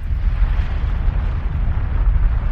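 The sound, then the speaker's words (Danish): A continuous deep rumbling roar with a churning, rushing texture, steady and loud throughout, from a volcanic eruption with lava pouring out, with heavy turbulent low-end booming and no voices. “Det er et vulkanudbrud, hvor det vælter ud med lava.”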